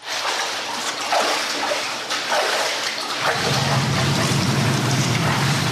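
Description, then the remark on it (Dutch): Steady, loud rush of sewage water, about 500 cubic metres per hour, flowing through the 150-year-old sewer under central Arnhem, a broad churning roar that deepens into a heavier low rumble partway through, with no voices. “En wat je nu hoort, dat is ongeveer 500 kub per uur.”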